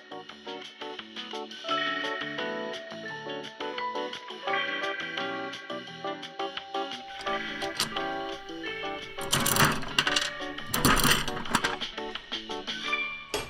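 A gumball machine crank ratchets and clicks as it turns, over steady background music, followed by a couple of louder rattling bursts as a large green gumball drops through.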